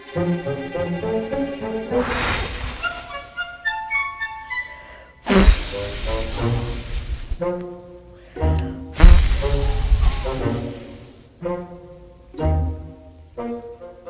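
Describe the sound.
Three long, forceful breathy blowing bursts, a voice imitating the big bad wolf blowing hard at the little pig's brick house in the Three Little Pigs story, rise loudly over plucked, tuneful music, with short pauses between each blast.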